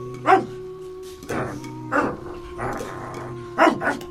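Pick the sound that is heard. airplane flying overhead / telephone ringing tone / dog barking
dog barking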